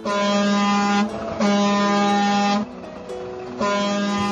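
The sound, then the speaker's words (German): A loud truck air horn, sounded by the speaker, blares in three long blasts separated by short gaps, dominant, with a steady harmonic tone and no voices. “Und ich finde, dass wir, warte mal, ich mach mal kurz hier die Hupe.”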